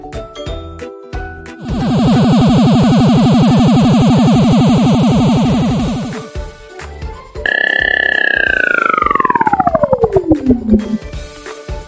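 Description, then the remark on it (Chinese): A synthetic sound effect of a UFO, a flying saucer shaped like a dorayaki slowly descending: a loud, rapidly pulsing electronic hum, then a bright whistling tone that sweeps steadily downward in pitch and breaks into fluttering pulses at the end. No voices. “抬头一看，有一台长得很像铜锣烧的飞碟在他眼前缓缓下降。”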